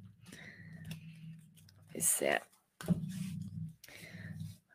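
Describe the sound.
Speech runs throughout, broken by a short, crisp papery rustle in the middle as a tarot deck is cut. The card sound is brief, followed by more talking.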